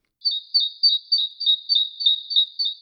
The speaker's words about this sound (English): a bird that has shifted to a higher range is better able to declare its territory and attract a mate. Urban songs are also faster, probably so they can be repeated more often let's listen to a forest bird. And now it's City Cousin.